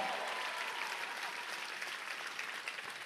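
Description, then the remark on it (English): An audience claps steadily, a dense, even wash of many hands with no distinct individual beats, holding a constant loudness throughout. “Clap your hands. О, ръкопляска, ако вярваш в това.”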